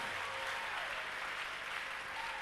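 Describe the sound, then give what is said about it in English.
An audience claps steadily for Jesus after preaching, a dense and continuous patter of many hands that fills the whole stretch at an even level, with no voices standing out. “Oh, somebody will clap for Jesus when I finish preaching.”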